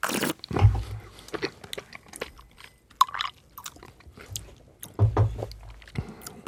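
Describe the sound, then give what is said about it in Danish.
Moist chewing and crunching of food while tasting a sweet rice dessert (risalamande) with cherry sauce, with irregular bites and mouth sounds over several seconds and a couple of louder crunches, no talking. “Må jeg høre, hvordan I så tænker, når I har smagt så gør jeg lige det samme.”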